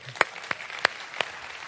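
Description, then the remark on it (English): Scattered applause for a choir at a church service, with four sharp, evenly spaced claps standing out above a soft wash of background clapping and room noise. No one speaks. “Let, us give the choir a hand.”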